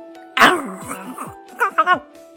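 A hunting dog barks sharply, first one loud bark, then a quick run of three shorter barks, over a low steady hum.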